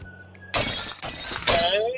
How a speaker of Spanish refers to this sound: Aquí se rompió una taza y cada quien.